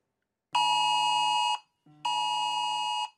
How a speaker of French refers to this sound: Cette alerte a retenti sur la plupart des téléphones portables au Royaume-Uni hier à 15h. Une sirène accompagnée d'un message.